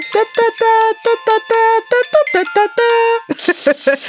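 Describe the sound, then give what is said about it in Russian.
Festive New Year jingle bells chime a quick, bouncy tune, with bright ringing notes in a steady rhythm. They sound loud, with no talking over them. “Новогодний перезвон кандаликов.”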